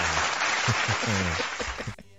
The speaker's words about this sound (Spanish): Aplauso para mí, por favor. Gracias.